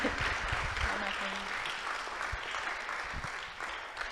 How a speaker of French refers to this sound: Applaudissez-le, friend, allez.